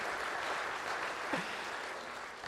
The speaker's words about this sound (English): And uh, now, of course, um, let's give them a round of applause. Yay!